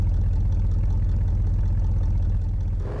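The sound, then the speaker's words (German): A steady, droning video game car engine hums loudly and continuously, low and rumbling, as the dented-looking car is driven quickly home, shifting slightly in tone near the end as if pulling away. “Ja, und ich würde sagen, ich fahre jetzt schnell nach Hause und dann würde ich sagen, machen wir das Auto in der nächsten Folge weiter.”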